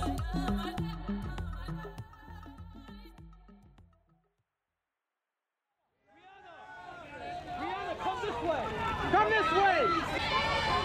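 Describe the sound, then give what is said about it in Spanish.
Music plays for a few seconds, breaks into a short silence, then a dense, loud crowd on the red carpet at the Toronto film festival takes over, many overlapping voices chattering and calling out. “Este sonido es mi vida en Toronto, donde yo cubrí el Festival de Cine y el red carpet es muy divertido.”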